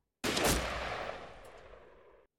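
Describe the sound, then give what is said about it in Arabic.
A hunter fires a single rifle shot at a wolf; it cracks out loud and sharp, then trails off in a long, rumbling echo that fades over about two seconds. No voices accompany it. “بدت له اللحظات التي فصلت بين رؤيته للذئب واطلاقه للنار اطول من حياته كلها وبدا له ان الطلقه التي خرجت من البندقيه قد اخترقت حياته ذاتها”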